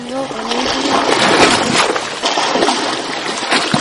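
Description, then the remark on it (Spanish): Rough, stormy sea waves churn and splash in a loud, continuous wash of water, surging for several seconds with no clear pauses. “Al hablar con el hipocampo se enfadó muchísimo y agitó el mar provocando un tremendo”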